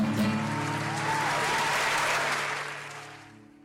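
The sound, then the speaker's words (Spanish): An audience gives a standing ovation, a sustained, dense wash of many hands clapping at full volume before tapering off toward the end, with a low hum underneath. “Ahora sí, ahora sí, ovación de pie.”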